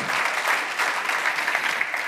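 A crowd applauds steadily, a dense, even wash of many hands clapping at a constant loud level with no voices on top.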